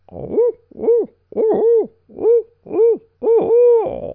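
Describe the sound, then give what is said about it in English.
A loud voice imitates an owl with six hoots in a steady rhythm, the later ones longer and more drawn out, and no talking around them. The hooting is done at dawn from a saddle on a ridge. “So I hoot.”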